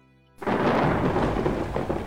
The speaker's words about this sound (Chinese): 闷热的夜，令人窒息，一道道闪电划破了漆黑的夜幕，沉闷的雷声如同大炮轰鸣，令人忌恐。很快，外面淅淅沥沥的下起了小雨，雨势渐大，最后演变成了一场瓢泼大雨。